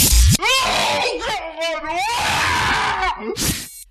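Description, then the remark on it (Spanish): A high-pitched human shriek, loud and strained, wavering in pitch for a few seconds, framed by sharp breathy bursts at the start and end. No other voices. “¿Y qué crees que le puede pasar a esa persona para chillar así?”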